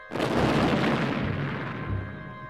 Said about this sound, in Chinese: 接着，一道黑色的残影闪过，猎犬爆炸开来